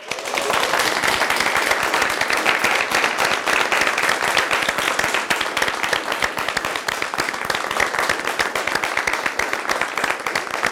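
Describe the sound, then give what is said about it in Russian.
An audience breaks into sustained applause, a dense, steady crackle of many hands clapping at once that stays loud and even from start to finish, with no voices standing out. “Аплодируем, Кончили аплодировать.”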